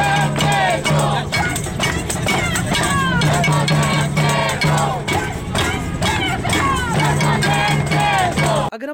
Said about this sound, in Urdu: Frere hall پر نکالی گئی اس rally میں سول سوسائٹی خواجہ سراہوں اور ماحولیات کے حوالے سے کام کرنے والی این جی او سمیت بڑی تعداد میں نوجوان مرد و خواتین نے شرکت کی اور ماحول بچاؤ فصل فیول نہیں ماحول دوست ایندھن کے نعرے لگائے